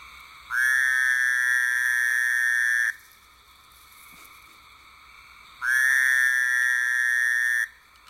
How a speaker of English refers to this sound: Next up, we have the Fowler's toad. Fowler's toad, Anaxyrus fowleri, formerly Bufo fowleri.